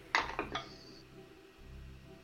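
A twelve-sided die, taken from a pouch, is rolled across a box, clattering in three quick bright knocks, the last ringing briefly, then settles into quiet with a low hum underneath; it lands on a six.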